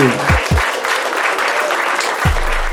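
A burst of dense applause, like a sound effect of a clapping crowd, runs steadily for a few seconds with a few low thumps near the start and end.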